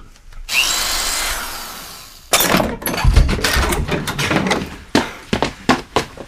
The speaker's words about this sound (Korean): 전화해도 안 받고 숙소로 찾아가도 문도 안 열어주더라고요. 할 수 없이 문 부수고 들어갔습니다.